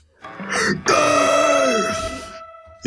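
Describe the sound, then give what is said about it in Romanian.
A person performs an exaggerated, drawn-out yawn in a guttural death-metal growl, a brief rough intake followed by a loud, sustained roaring exhale lasting about two seconds. “Eu o să fac acum căscatul uh, death metal.”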